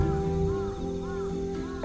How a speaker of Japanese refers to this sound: カラスなんか鳴いてたりしてね